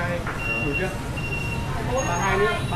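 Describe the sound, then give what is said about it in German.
Busy street traffic with mopeds rushing past just centimeters from street food stalls, a steady loud roar of engines and road noise, with faint voices and a high whine rising briefly near the end. “Nur Zentimeter vom durchbrausenden Verkehr entfernt breiten sich Garküchen aus, spielen Kinder, lesen die Alten die Abendzeitung.”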